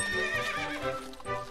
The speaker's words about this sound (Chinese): 第二天。太阳刚爬上山，王子的仆人忠心耿耿的亨利就驾着马车来到了王宫门口。